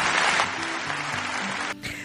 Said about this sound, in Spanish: Un gran aplauso, bien merecido.